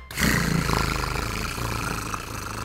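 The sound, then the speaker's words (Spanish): A man's voice imitates a drumroll with a loud, sustained rolling growl, rough and buzzing for a couple of seconds, almost like an animal's roar. “Pero bueno, después de esos tambores tan culeros que hizo mi compañero, una disculpa para, la, la, ofensa que le acabamos de hacer a los gatos y a los tamboristas del mundo, güey.”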